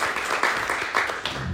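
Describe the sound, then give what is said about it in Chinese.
Warm, steady applause from an audience welcoming a gold-medal coach and lecturer, a dense wash of many hands clapping at an even loudness throughout, with a faint murmur of voices underneath. “那我们用热烈掌声来欢迎我们的金牌教练讲师”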